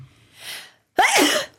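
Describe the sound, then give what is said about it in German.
A single sneeze: a soft breathy inhale building up, a brief pause, then a sharp, loud explosive burst that trails off into a breathy hiss. “Gesundheit.”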